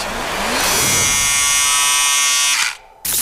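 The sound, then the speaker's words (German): A loud electric razor buzzes steadily with a dense, whining hum, cuts out briefly near the end, then switches back on. No one speaks. “Jetzt wird rasiert.”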